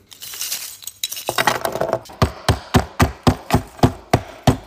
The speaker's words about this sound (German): ich zermal die erstmal so ein bisschen. Ich bin jetzt hier in der Werkstatt, dafür werde ich wahrscheinlich einfach einen Hammer benutzen